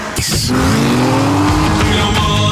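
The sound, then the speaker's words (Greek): A formula race car engine revs loudly with rising harmonic whine, accompanied by a sharp tire squeal, intense throughout the short burst, as the car gives chase. “Και η φόρμουλα που μας κυνηγάει.”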